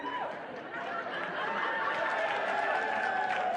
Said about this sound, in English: Don't clap. Don't clap. Stop it. You encourage that behavior.